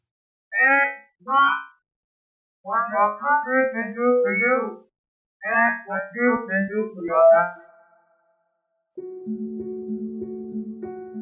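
A speech clip ("not what your country can do for you, what you can do for your country") rendered as warbling digital whistle tones that follow the rhythm of talking, with the original speech not playing along, in short bursts and longer phrases, ending in a steady, low buzzy tone.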